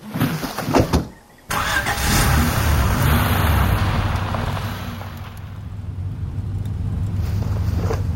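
A car engine turns over after a short pause and settles into a steady rumble, holding a strong low drone as the vehicle pulls away and keeps running.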